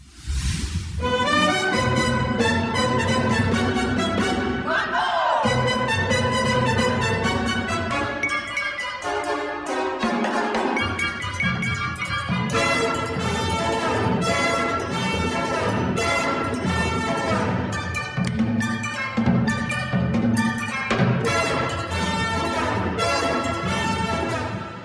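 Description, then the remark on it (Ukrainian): A lively orchestral score from a musical, mixing symphonic, jazz and ethnic elements, plays loud and continuous with a jazzy swing, full of punchy brass-like stabs, busy percussion and shifting syncopated accents, with no voices. “Музика яскрава і запальна настільки, що важко всидіти на місці, коли вона звучить.”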